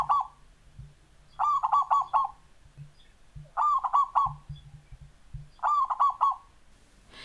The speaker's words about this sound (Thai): นกเขาชวาเดินทางเข้าสู่ประเทศไทยทางภาคใต้ค่ะ โดยคนไทยทางใต้เนี่ยนำนกเขาชนิดนี้มาเลี้ยงค่ะ แล้วเจ้านกเขานี้ก็แพร่พันธุ์ได้ดีนะคะ จนตอนนี้นกเขาชวาก็ไปอยู่ในทุกทุกภาคของประเทศไทย จนกลายเป็นนกประจำถิ่นไปแล้ว เอาละมาฟังเสียงของนกเขาชวากันค่ะ